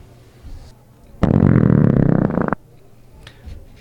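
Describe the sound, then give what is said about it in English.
One long, loud belch, rough and gurgling, held for just over a second, made as a signature belching sound for rating beers, with only faint background noise before and after. “Um, so today we'll be reviewing, the, tasting these beers and rating them using our signature, our suds ratings and signature belching sounds.”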